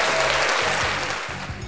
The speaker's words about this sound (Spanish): Un aplauso para ti, carnalito.